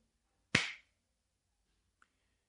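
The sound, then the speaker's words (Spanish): A single sharp open-hand slap, loud, with a brief ringing decay, followed by near silence and a tiny faint tick. “Una palmada es esto.”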